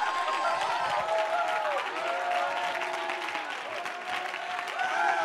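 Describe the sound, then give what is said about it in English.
Dense, continuous hand clapping from a church worship audience fills the whole stretch, steady and loud, with voices and cheering mixed underneath. “You know why I'm clapping my hands?”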